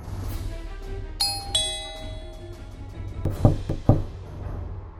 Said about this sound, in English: Ken is ringing the doorbell at Nao's place. Nao does not reply.